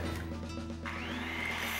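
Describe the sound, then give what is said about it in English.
A power tool runs steadily with a droning motor hum, then its pitch climbs into a rising whine as it speeds up partway through. Loud, with no voices. Edgar Martinez is using Eagle Hardware brand-name power tools to make a light bat. “Well, once again, Edgar Martinez is using Eagle Hardware's incredible selection of brand name power tools for his latest project.”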